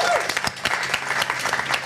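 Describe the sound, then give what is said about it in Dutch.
A burst of audience applause for a band, dense and steady clapping at moderate loudness with sharp individual claps popping out of the wash of hands. “Mag ik nog één keer een applaus voor de enige echte …?”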